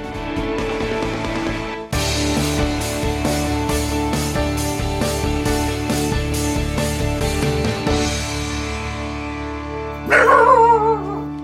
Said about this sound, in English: forgive me, that's my corgi barking.